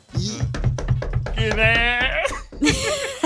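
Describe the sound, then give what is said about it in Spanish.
A quick run of about six or seven sharp, evenly spaced knocks on a door, with laughter and voices bursting in over and after them. “Se escuchaban dos toquillos porque los marcianos tienen más de dos dedos.”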